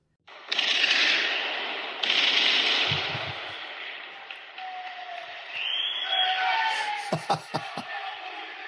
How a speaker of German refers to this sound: Die haben die ganze Zeit äh, so Böller gezündet